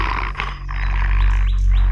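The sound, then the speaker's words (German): A muzzled dog growls aggressively and continuously, a deep, rumbling snarl that swells and rises in pitch a few times over two seconds, with no talking. “Hat das Vieh was gegen Sie? Ich kann Hunde nicht ausstehen. Das merkt er gleich.”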